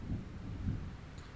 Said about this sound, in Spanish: Y nada, iba por, por una calle Bogotá a coger el Transmilenio y cómo no que se, se desgaja ese aguacero así casual como el que, el que, como los que hemos visto en estos días. Pero era una tormenta eléctrica, parce.